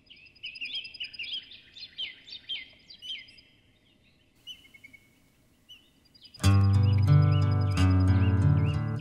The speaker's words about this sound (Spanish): ya está sonando ya de fondo, se oyen los pajaritos de esta canción